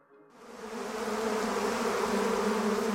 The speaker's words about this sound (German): Das stechende Gelb der Rapsfelder, das ist zurzeit wirklich beeindruckend, aber Rapsfelder kann man nicht nur sehen, man kann sie auch hören. Wenn die Bienen unterwegs sind, die fliegen ja total auf dieses Gelb